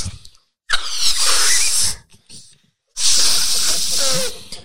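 Two long, breathy rushes of air with squeaky, hissing edges, like someone forcefully blowing into a balloon, separated by a brief pause for breath.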